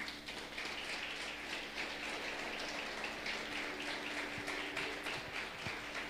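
A church audience applauds for Christ, many hands clapping in a dense, steady crackle that holds for about six seconds without letting up, with no voices over it.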